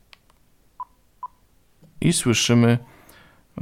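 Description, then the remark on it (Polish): A digital recorder gives a quick double beep when the record key is pressed, signalling that it is in recording standby mode: two short, clean electronic tones about half a second apart, fairly soft, followed by a person starting to speak. “Zaczynamy naciskając klawisz zapis”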